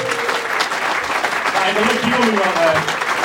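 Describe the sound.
Steady applause from a live audience fills the whole stretch, a dense, even patter of clapping with a few voices and faint cheers mixed in underneath.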